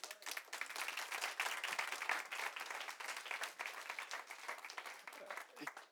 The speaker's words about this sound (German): Geben wir Jesus einen Applaus einmal